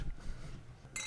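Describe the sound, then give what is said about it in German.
Near the end, a bright, ringing clink of glasses touched together in a toast, short, following a stretch of quiet low background rumble. “Stossen wir doch schnell an.”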